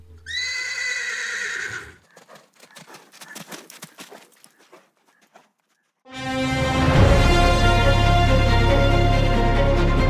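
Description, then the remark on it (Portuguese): A horse named Silver gives a loud whinny, then hooves clip-clop in a quick, irregular run before stopping; after a short silence a loud, dense wash of sound takes over. “lógico que o meu cavalo se chama Silver.”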